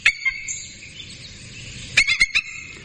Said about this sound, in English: When you're watching the movies or television and you hear this nice, majestic scream as a bald eagle flies across the sky, that's not an eagle. That's a red-tailed hawk call. This is a bald eagle.